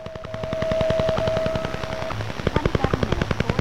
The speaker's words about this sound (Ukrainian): У радіопросторі свого часу можна було зловити звуки, які нагадували стукіт дятла.